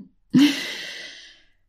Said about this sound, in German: Tiefes Atmen ist schon so ein erster Zugang, um bei sich anzukommen. So einen tiefen Atemzug.